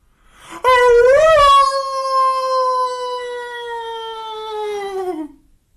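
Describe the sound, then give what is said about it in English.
A single long, loud howl from a human voice imitating a dog, rising at first then holding a sustained tone for about five seconds before trailing off. “I howled.”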